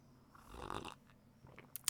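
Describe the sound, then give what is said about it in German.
An airy slurp of someone sipping a hot coffee made in a fully automatic coffee machine, followed by a couple of small clicks like a cup being handled, with no talking. “Da werde ich jetzt auch gleich mal dran nippen.”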